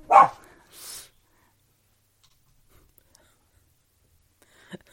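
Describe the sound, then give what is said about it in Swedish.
A dog at home in a house lets out a single loud bark, followed by a brief softer huff. Near silence follows, broken only by a few faint clicks and a small noise at the end. “det där var ju Ester som eh, ni hörde”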